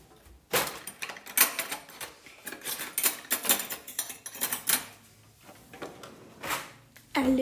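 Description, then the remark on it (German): Metal cutlery clinks and rattles in a quick, irregular series of sharp jingles, like utensils being pulled from a drawer, as forgotten cutlery is fetched for a meal, with a soft knock near the end. No one speaks. “Ich habe das Besteck vergessen.”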